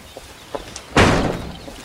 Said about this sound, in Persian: همه درها را بست